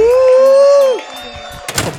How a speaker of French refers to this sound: Bah, je vais fermer la porte, tu te démerdes.